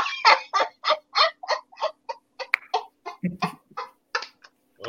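A chicken clucks in a steady, rapid series of about a dozen short, raspy calls, clear, with a brief lower grunting sound near the end and no talking.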